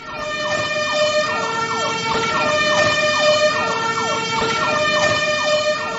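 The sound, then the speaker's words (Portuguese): A fire truck siren wails continuously as it passes outside, its rising and falling tones repeating in quick sweeps at a steady, fairly loud level over a low road rumble, with no one talking. “É um bombeiro lá fora, né?”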